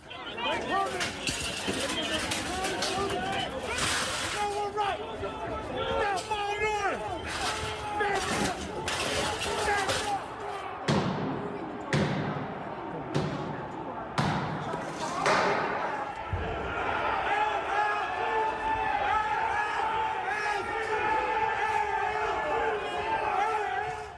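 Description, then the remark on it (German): Inside the Capitol, a dense crowd shouts and clamors while a run of heavy bangs, slams and a shattering crash ring out in quick succession as the doors break open, then the loud crowd noise surges on as people stream in. “Die nächsten Aufnahmen kommen aus dem Kapitol drinnen und es wurde gefilmt der Moment, in dem die Türen aufbrachen und die Leute reingeströmt sind.”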